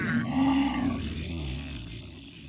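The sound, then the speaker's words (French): A loud, deep tiger roar rumbles for a couple of seconds, strongest at the start and slowly fading, with no talking over it. “T'es qui, toi Je suis le tigre.”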